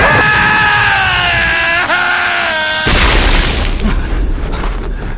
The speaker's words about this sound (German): Ich glaub's nicht, er ist explodiert!